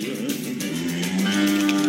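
Cattle mooing in long, drawn-out low calls that carry on for a couple of seconds, steady, with no one talking.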